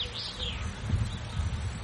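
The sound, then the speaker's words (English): Soft birdsong outdoors, heard from a porch at nine o'clock on a Sunday morning: a few high chirps near the start, carried over a steady low rumble of background ambience, with no one talking. “Cup of coffee, listening to the bird song”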